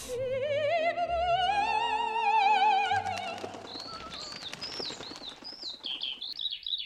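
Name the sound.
skylark singing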